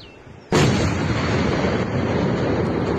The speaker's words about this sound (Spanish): Los peruanos desplegaron helicópteros para su intersección y en el sector Tabacal y Guarapo los proyectiles destruyeron las máquinas.